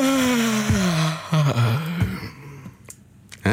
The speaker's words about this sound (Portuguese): Toda a gente boceja, não é? Vamos fazer um grande bocejo a nível nacional. Vamos a isso.